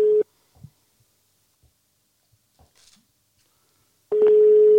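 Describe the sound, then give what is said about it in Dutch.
A phone call rings out: a steady, low-pitched ringback tone sounds briefly, falls quiet for several seconds with a few faint clicks, then returns loudly and holds. No one speaks. “Eh, laat, laten we hem bellen. We gaan nog gewoon bellen.”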